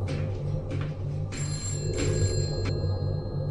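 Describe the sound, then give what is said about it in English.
A telephone bell rings steadily and fairly loud, its bright metallic trill sounding in repeated bursts over a low, constant rumble, with no one speaking. “That's a phone! That hasn't rung in years!”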